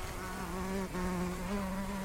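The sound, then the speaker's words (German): A wasp buzzes steadily, its droning hum wavering slightly in pitch as it pushily circles an older woman's face at a pool with water slides, after the chocolate muffin in her right hand, with one brief dip before the buzz continues. “Eine Wespe umkreist sie aufdringlich, belästigt sie, schwirrt vor ihrer Nase und hat es auf den braunen Schokomuffin in ihrer rechten Hand abgesehen.”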